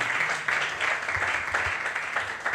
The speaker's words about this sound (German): Das verdient einen Applaus auf jeden Fall.